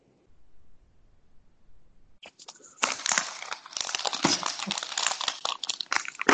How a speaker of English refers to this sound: Let me just noisily turn my paper.